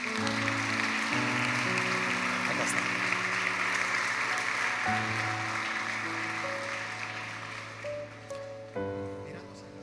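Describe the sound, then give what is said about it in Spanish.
An audience applauds in welcome for people called to the front, a dense, steady wash of clapping that holds loud for several seconds before thinning out, with sustained musical chords playing underneath throughout. “Démosles un aplauso de bienvenida a ellos.”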